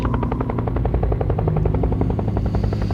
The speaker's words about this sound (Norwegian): Et helikopter skal hente de tre unge soldatene.